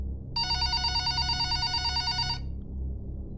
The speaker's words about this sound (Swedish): Då ringer telefonen.